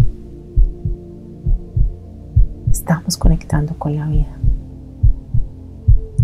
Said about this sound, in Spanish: Llénate en este momento, escuchando los latidos de ese corazón y poniendo tus manos sobre el tuyo, de amor.